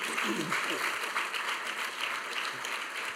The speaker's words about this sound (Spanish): Can you give God a round of applause for Dale that? Dale a Dios un fuerte aplauso por eso.